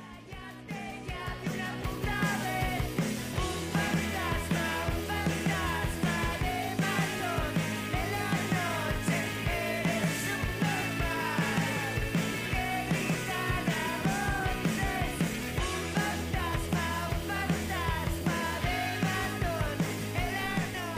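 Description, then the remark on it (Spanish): A loud, energetic rock song plays continuously, with driving drums, dense guitars and a chorus of voices yelling along, the full band steady and forceful throughout. “es una canción esta que te voy a poner para chillar en un festival.”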